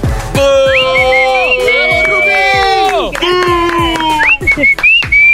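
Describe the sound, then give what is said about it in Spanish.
An audience whistles loudly at a female contestant as she is introduced, many shrill overlapping whistles sliding up and down and holding long notes, over a steady crowd roar with sharp, regular claps or thumps. “A ver, a ver, a ver, ¿por qué le chiflan así como rayándosela?”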